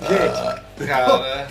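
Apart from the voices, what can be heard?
burp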